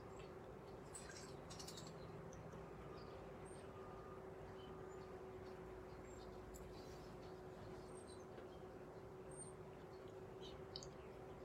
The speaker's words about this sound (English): I keep hearing the birds on my patio. They all seem to be taking a bath today in this uh, large thing of water that I have outside for them. So I'm hearing them shake and jump and splash.